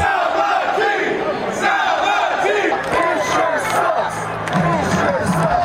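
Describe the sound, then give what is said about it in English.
A huge crowd of fans at the Oakland Coliseum, at a reverse boycott urging owner John Fisher to sell the team, roars steadily, voices layered into a dense wall of cheering and rhythmic chanting, with shouts and whoops rising above the sustained loud din throughout. “tonight, the Coliseum erupted with one of a kind chants and cheers.”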